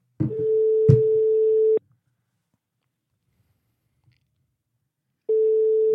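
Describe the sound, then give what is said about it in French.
A phone ringback tone while calling a friend: a steady electronic purr lasting about a second and a half, a long silent pause, then the next ring beginning. It's clear, with no talking. “Dès qu'il décroche, 45 secondes.”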